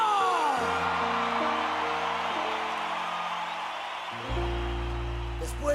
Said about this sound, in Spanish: Que se oiga ese aplauso, ese aplauso chingón